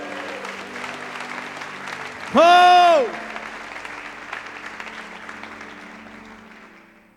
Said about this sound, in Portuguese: Dê um brado e aplaudam mais uma vez.